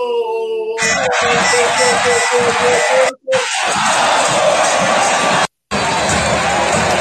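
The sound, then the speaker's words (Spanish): A goal sound effect: a big stadium crowd erupts into a loud, sustained roar of cheering and shouting for a goal, cutting out abruptly twice for a split second before surging back at full volume. “No, me, no me está sonando, fíjate que lo estoy, mira, lo estoy, lo estoy activando, mira, lo estoy activando porque no me está sonando. Lo estoy activando, déjame ver. Grito de. Ya. Golazo, golazo, golazo.”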